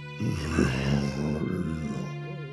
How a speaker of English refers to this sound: You hear this large growl.